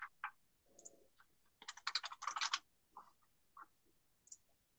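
Quick clicking keystrokes on a computer keyboard as someone types into a search box, a few scattered taps then a fast burst of typing in the middle, crisp, with no voices.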